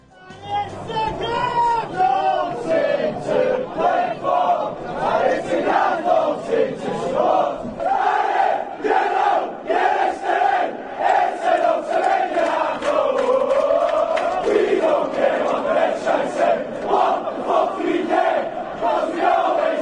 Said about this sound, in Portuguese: E a gente então ouve a primeira música cantada em Goodson Park neste programa O Som da Torcida. And it's a grand old team.